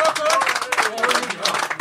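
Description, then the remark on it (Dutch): A crowd applauding loudly and steadily, a dense crackle of many hands clapping with voices cheering mixed in throughout. “Nou, we hebben nog nooit zoveel applaus gekregen, behalve met Kleine Boodschap 100 trouwens.”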